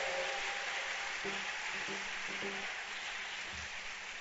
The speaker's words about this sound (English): Oh, I can hear a good hand clap. You are a lot here.